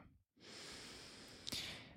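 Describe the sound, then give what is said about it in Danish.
A deep breath drawn in and then let out, a steady breathy rush lasting over a second after a brief pause, with no talking. “Lige træk vejret ind og pust ud.”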